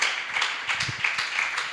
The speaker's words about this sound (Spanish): Aplauda al Señor en esta tarde.